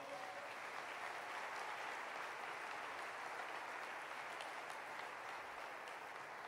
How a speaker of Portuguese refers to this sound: Quem pode dar um aplauso para o Senhor?